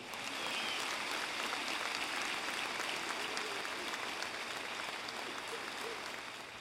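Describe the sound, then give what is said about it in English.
An audience applauds steadily, a dense, even wash of clapping from many hands that holds at full strength for several seconds before tapering slightly at the end. “In the name of Jesus, give a shrug of applause to the Lord.”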